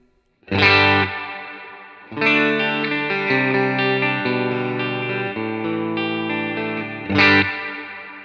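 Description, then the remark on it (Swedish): Electric guitar processed through a plate reverb with the mix raised and damping opened up, playing a short strummed burst and then long ringing chords that blend into a thick, sustained wet tail, loud with no talking. “Snyggt reverb.”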